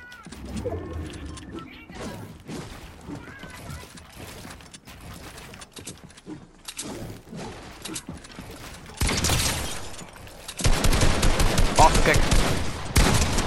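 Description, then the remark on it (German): Video game gunfire: scattered sharp shots crack out loud, then build into dense, rapid automatic bursts that fill the final few seconds. “keinen Schuss treffe, wie ich keinen Schuss treffe, ich Spott.”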